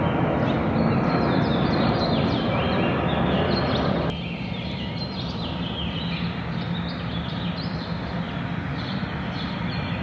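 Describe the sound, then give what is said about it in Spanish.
At dawn on Diagonal San Antonio, a dense, steady roar of city traffic with microbuses fills the scene, while faint, quick chirps of small birds flicker above it throughout; the noise drops slightly partway through. “que detrás de la estampida de microbuses se escuchaban los pajaritos?”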